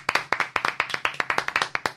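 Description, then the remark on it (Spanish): Brisk, steady hand clapping fills the whole moment: sharp, crisp claps in quick succession, about ten per second, moderately loud, with no voices over them. The applause congratulates someone on becoming a godfather. “Aplausos.”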